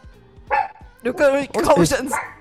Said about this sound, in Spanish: Mira, se descontroló el pichichus. Perro chiquito, Sí.